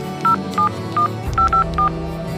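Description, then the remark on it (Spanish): A telephone number from a pet's name tag being dialed to call its home: six short touch-tone beeps in an uneven rhythm, clear and moderately loud over a low background hum, with no one speaking. “Vamos a llamar para avisar que estás aquí.”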